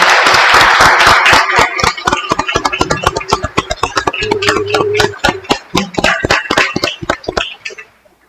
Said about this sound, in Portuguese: Uma salva de palmas aos nossos pioneiros e obrigado.